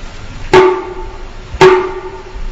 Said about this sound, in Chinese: 哎呀，还得叫我敲敲门，有人没有？